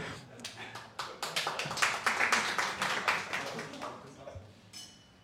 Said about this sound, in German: Kann man klatschen, ja.